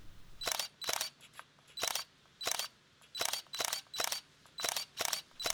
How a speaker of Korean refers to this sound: 아름다운 순천만을 향해 열심히 셔터를 누르고 있는데